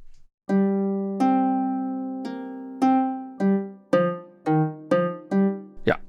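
Plucked notes of an Irish harp sample instrument, set to a longer decay, ring out one after another, about nine in all, each with a long, slowly fading decay. The later notes come faster, ending in a quick bright strum, with no voices.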